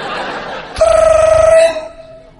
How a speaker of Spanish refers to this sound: Suena el teléfono en la otra casa, ¿no? ¿Qué chingados es eso? Un teléfono.